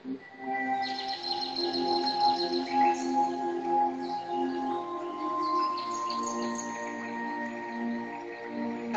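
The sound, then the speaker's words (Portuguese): Small birds chirp and trill continuously for several seconds, a layered, fairly steady chorus of high tweets over sustained tonal sounds, with no voices present. “passarinho.”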